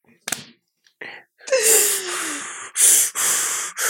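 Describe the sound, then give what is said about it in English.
A voice imitates a man straining while lifting 30-pound weights: a sharp intake, then a long, forced groaning exhale that slides downward, followed by a few loud, rhythmic huffing breaths, intense. “He's pushing. He's pushing.”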